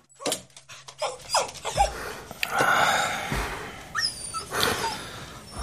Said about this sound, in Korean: 깊은 밤, 잠에서 깬 건 낑낑거리며 우는 강아지 소리 때문이었다.